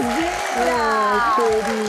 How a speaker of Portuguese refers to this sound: Assim, elas merecem é. mesmo todos os aplausos.